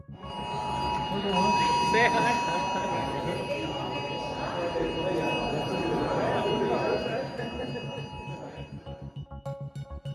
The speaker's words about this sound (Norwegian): For klokken tolv i dag peip tusenvis av telefoner rundt omkring i hele Norges land, og sånn her gikk det for seg i Oslo.